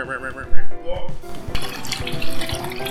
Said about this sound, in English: Wash your butthole, and as always, don't forget to flush. I'm gonna hit the urinal on this one.